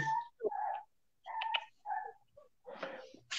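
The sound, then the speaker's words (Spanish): A small dog yaps repeatedly in shrill, high-pitched bursts, about six barks in quick, uneven succession, clear with no talking. “Piche, deje mandándole chocolate al perrito pobrecito. para que se calle para siempre.”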